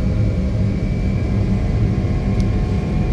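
A steady, loud engine roar with deep rumble and a faint high whine as an airplane, its engines just started, rolls down the runway accelerating ever faster for takeoff, continuous for a few seconds with no talking.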